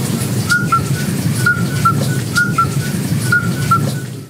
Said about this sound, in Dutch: is het geluid van de Vroetmeesterpad. En eh, hier is een bijzonder verhaal geschreven, denk ik, een aantal jaren geleden al. Eh, waar die Vroetmeesterpad op eh, een van de weinige plaatsen in Vlaanderen nog voorkomt, hier in Borgloon.